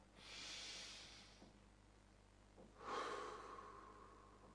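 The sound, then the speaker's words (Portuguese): A slow, relaxed breath cycle: one long airy, hissy breath, a short quiet pause, then a deeper, fuller breath that lingers. No one speaks. “Então, para você relaxar, normalmente você utiliza esse tipo de respiração.”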